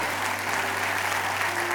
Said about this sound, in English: y'all clapping, praise God.